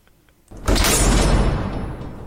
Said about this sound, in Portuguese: Bate porta.